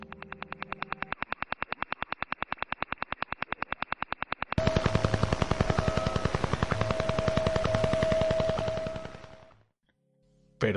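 A Russian Woodpecker over-the-horizon radar signal, a very powerful transmission spread over many frequencies: rapid, evenly spaced radio pulses tap out a fast mechanical knocking through static, growing louder and denser halfway with a steady tone underneath, then cutting off abruptly.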